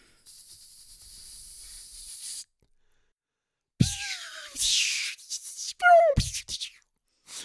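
A hissing firework launching five snaking trails (red, green, yellow, blue and purple) that twist around each other across the sky: a steady two-second hiss, a short pause, then a louder burst of hissing and whistling whines that swoop downward, with no talking.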